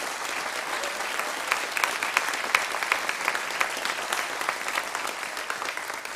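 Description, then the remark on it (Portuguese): A church audience claps for the Lord for the word (the sermon) steadily for about six seconds, a dense, even wash of many hands with a few sharper claps standing out, and no voices heard over it. “Olha só, vamos aplaudir ao Senhor pela palavra.”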